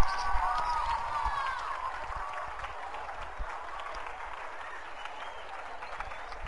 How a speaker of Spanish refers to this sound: Un aplauso fuerte que reciben estos abuelitos, bueno, no tan abuelitos.